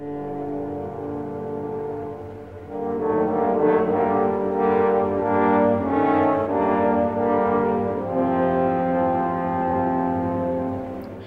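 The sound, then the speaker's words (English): Three French horns play the dark, sustained theme representing the wolf in rich harmony, swelling louder after a soft opening and holding full, brassy chords through the phrase with no voices present. “the wolf represented by three French horns,”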